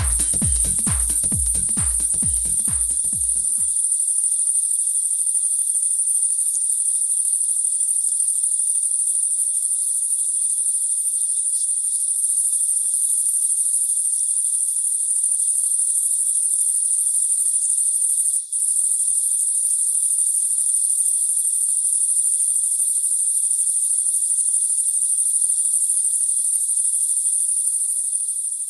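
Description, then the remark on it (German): A dense, unbroken chorus of crickets chirps at night in summer in Bonn, shrill and steady for the whole stretch, with a few low rhythmic thumps only in the first seconds. “Bonner Grillen in der Nacht.”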